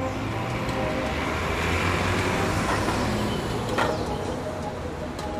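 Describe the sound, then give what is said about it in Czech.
Steady, dense traffic ambience at the Florenc central bus station in Prague, Czech Republic: idling engines rumble low and constant, with a passing vehicle swelling briefly near the end and no voices. “Naopak, je to největší a nejznámější nejen pražské, ale snad i české autobusové nádraží.”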